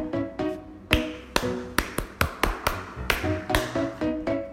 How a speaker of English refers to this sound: Map said to clap to slide open the gate。嗯，地图说要我们 clap。